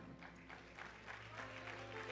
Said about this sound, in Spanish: Salmo, te digo, un aplauso a quien está allá abajo.